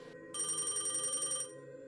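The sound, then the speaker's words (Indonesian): A telephone bell rings in one bright, buzzing burst lasting about a second, loud, over a low steady background hum: a call from a community health centre in North Maluku, Indonesia. “dapat panggilan telepon dari pihak puskesmas tempat dia bekerja.”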